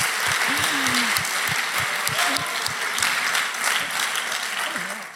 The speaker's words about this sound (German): Danke, dass ihr damals den Mut hattet, wirklich diesem Herz für Ansbach nachzugehen. Yes, echt einen riesen Applaus dafür.